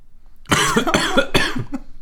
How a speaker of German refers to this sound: Ich muss mega husten.